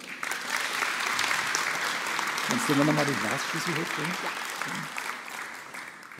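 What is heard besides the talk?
audience applause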